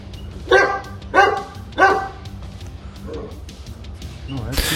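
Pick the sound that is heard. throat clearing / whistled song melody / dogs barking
dogs barking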